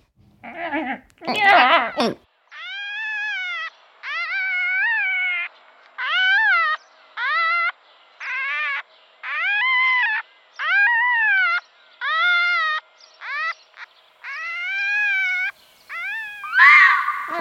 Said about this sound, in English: I like the foxes when they're like.